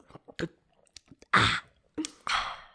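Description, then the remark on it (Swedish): Loud slurping gulps of tea from a large mug, drunk without a spoon: a few small wet mouth clicks, then two long noisy slurps in quick succession, with no talking. “Ja, det gör jag på mitt te nu också.”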